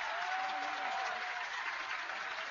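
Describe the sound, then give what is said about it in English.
A stadium crowd cheers and applauds as substitute Conor Whelan of Kinvara comes on for number 12 Cianan Fahy, a dense, steady wash of clapping and roaring that holds at an even level throughout, with no voices speaking over it. “There'll be some cheer when this fella enters the fray”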